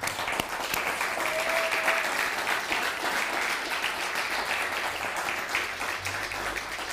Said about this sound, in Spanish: Entonces, una vez más, eh, ¿por qué no damos, ya no hemos dado un fuerte aplauso, ¿va? Un fuerte aplauso, entonces.